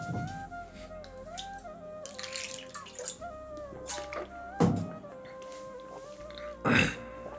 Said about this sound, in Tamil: இன்னும் தண்ணி குடிச்சுக்கிறேன்